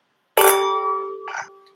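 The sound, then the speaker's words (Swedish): Glasses of red wine clink together in a toast, a bright, sharp strike that leaves a clear ringing tone hanging on, with a softer second touch partway through as the ring slowly fades. “nu när vi har det här första röda vinet nu då. Vi skålar till två år som podd.”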